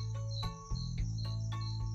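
Crickets chirp steadily at night in a continuous high-pitched trill, with faint periodic pulses over a low background rumble and no voices.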